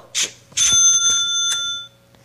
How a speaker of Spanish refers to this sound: Y ahí suena la caja registradora.